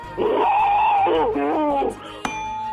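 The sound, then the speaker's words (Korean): A voice imitates boiling water as an entry in a voice impression contest, with a sustained, wavering hum that bubbles and warbles in pitch for nearly two seconds, followed by a brief sharp click, fairly loud. “물 끓는 소리입니다. 물 끓는 소리.”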